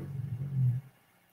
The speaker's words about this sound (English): My guide dog is snoring.